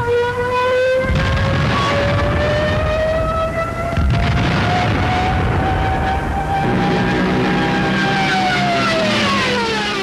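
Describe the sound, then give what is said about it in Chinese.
A Stuka dive bomber's siren, its own built-in sound-making device, screams for about ten seconds, a loud, sustained wail that slowly climbs in pitch and then bends downward near the end, over a heavy roaring engine. “许多地面士兵在死前听到最后的声音，就是由这种斯图卡轰炸机所发出来的尖叫声，所以它也被称作“尖啸的死神”。”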